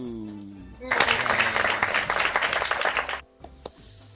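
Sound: applause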